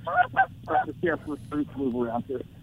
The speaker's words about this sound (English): I can hear. I can yeah. hear the geese. I didn't realize you were out there in the blind. Oh yeah, we're laying down in the blind.